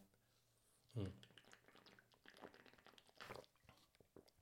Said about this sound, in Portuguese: Mais coisas. Beber um golinho de água, que é sempre importante. Hidratação.